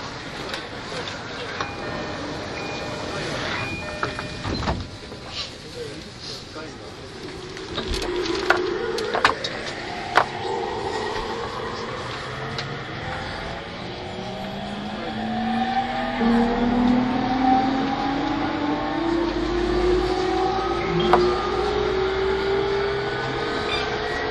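An E231 series Yamanote Line outer-loop train pulls away from track 2, next stop Ebisu: a steady rumble with a few sharp clunks, then layered electric motor tones that climb steadily in pitch and grow louder as it accelerates.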